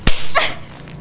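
A single sharp slap of a hand across a girl's cheek lands loudly, a crisp smack followed a moment later by a brief startled gasp or yelp and a faint fading tail.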